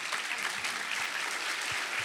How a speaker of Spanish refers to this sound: ¿Qué le parece si nos ponemos de pie y les damos un fuerte aplauso a estas tres familias?